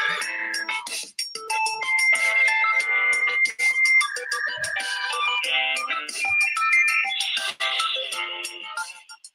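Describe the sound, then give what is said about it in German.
A tinny electronic melody plays through a small phone speaker, bright, thin-toned notes moving steadily for about nine seconds with no bass and no voices. “Spiel uns einen Song.”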